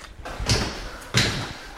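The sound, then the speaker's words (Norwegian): A heavy wooden door of a white wooden church creaks and thuds open, with two loud bursts of scraping and knocking about half a second apart, set against a faint background. “Nå er ei dør til lenger ned her, men ja.”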